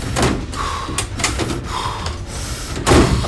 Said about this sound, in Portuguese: a Ana desatinou a fuçar nas gavetas dos armários até achar várias câmeras guardadas